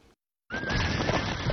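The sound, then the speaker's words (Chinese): A horse whinnies loudly after a brief pause in a car-buying advertisement, a single sustained high-pitched neigh over a rough, noisy rumble, lasting about a second without any talking. “享受人车合一的至臻境界，你首先需要选对最合适的宝马良驹。”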